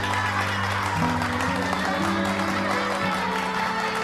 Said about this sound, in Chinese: 大家掌声欢迎他们！